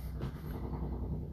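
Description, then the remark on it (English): A helicopter hovering overhead, a steady, low droning rumble with a faint rhythmic pulsing from the rotor, continuous and fairly loud throughout, with no voices. “See, that's a that's a that's a helicopter.”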